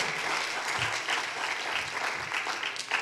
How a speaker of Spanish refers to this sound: Así va a aplaudir, ayúdeme y aplauda fuerte.